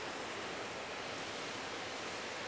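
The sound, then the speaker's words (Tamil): Steady heavy rain pours down in the early morning in a dense, even hiss that fills the whole stretch without pause, with no voices or distinct drops standing out. “மழை சத்தம் கேட்குதுன்னு நினைக்கிறேன் இன்றைக்கி முதலே கண் முழிக்கலை செவி தான் முழிச்சிருச்சு”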